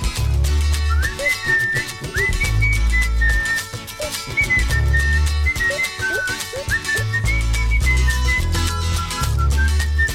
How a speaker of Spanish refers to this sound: Y el silbido.